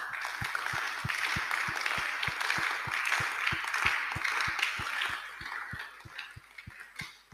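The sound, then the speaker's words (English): An audience claps for Jesus in steady unison, about three beats per second, each clap landing with a dull thump over a dense wash of crowd noise that thins slightly toward the end. “Clap for Jesus.”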